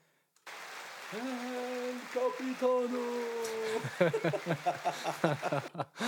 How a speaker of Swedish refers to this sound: lite applåder. Ja, ah, den gillar du. ah, jag älskar, jag älskar den här paddan. Lite ljud.